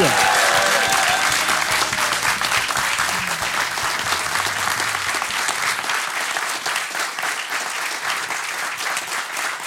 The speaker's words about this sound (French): Euh, devant euh, du public, alors j'ai demandé aux gens, parce que pour une fois on va en profiter, si vous pouviez applaudir mes comparses ici.